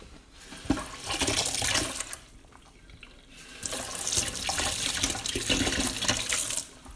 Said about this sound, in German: Ich muss noch aufkauen ich brauche erstmal einen Schluck Wasser.